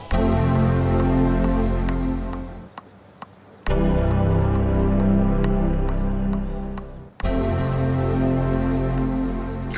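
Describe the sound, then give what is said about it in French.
Music built from startup chimes of different generations of Macintosh computers, arranged in GarageBand: rich, sustained synthetic chords ring out in loud blocks, broken by a brief quiet gap and a sudden cut before the next chord swells in. “Ou plutôt des sons de démarrage d'ordinateurs.”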